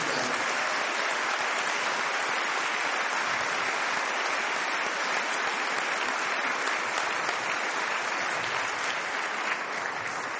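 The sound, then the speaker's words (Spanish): Sustained applause from an audience, a dense, steady wash of many hands clapping that holds at an even loudness for about ten seconds without any talking. “Por eso, por favor, quiero que le demos un tremendo aplauso hasta donde estén mis hermanos.”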